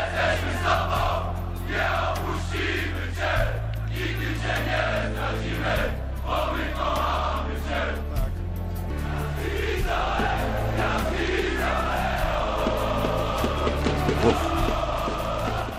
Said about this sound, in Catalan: és un estadi relativament petitet, perquè em diràs tu, sí, 7.000, 8.000, 12.000 persones, però fan molt de soroll, eh?